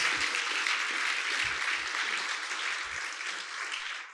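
Sustained audience applause, a dense steady wash of many hands clapping at an even loudness throughout, with a few low thumps scattered underneath.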